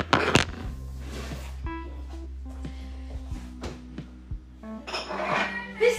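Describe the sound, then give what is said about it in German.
Several bright clinks and knocks of glassware as a glass is fetched to make a drink, with a loud clatter at the start and scattered taps and a low hum throughout, no speech. “Äh, ich habe jetzt noch vor, mir ein Getränk zu machen. Ich hole mir jetzt kurz ein Glas”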